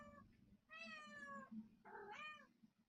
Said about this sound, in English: do you have a cat? Uh, yeah, it's it's a stray that wanders through every now and then.